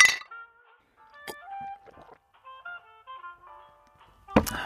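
Several glasses of butterbeer and elderflower tea clink together in a toast in quick succession, bright ringing chimes with lingering tones, bracketed by a couple of sharper knocks at the start and end.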